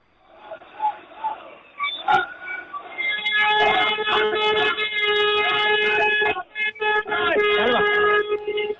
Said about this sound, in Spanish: Ya escuchan los aplausos que acaban de salir a la calle rodeados de policía y con los compañeros gritando, no estáis solos.